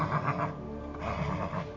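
A nervous horse neighs, a shrill, wavering whinny that carries on for a couple of seconds with no voices around it.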